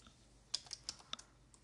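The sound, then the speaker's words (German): Quick, light typing of a search query on a computer keyboard: several crisp key clicks in an uneven burst, fairly quiet, with no voices present. “Jetzt habe ich gefährlich falsch geschrieben.”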